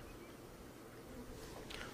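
A bee buzzes, a steady droning hum with a brighter whine that swells briefly near the end, over faint background noise and no speech.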